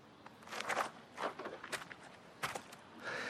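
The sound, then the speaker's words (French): Footsteps on a floor, about five or six soft, slightly uneven steps spread across a few seconds, quiet, with no talking. “Pour Martin Milligan aussi, c'est l'écho des sons de ses propres pas sur le sol”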